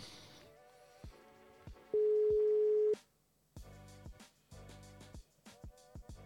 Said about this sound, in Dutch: En dan eh, gaan we hem eens even bellen. Kijken of dit werkt. Kijk, dat, ik hoor de, de, de telefoon al overgaan.